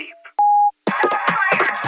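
A single answering machine beep: one steady, pure electronic tone lasting about a third of a second, loud and clear. A faint voice precedes it, and someone starts talking right after.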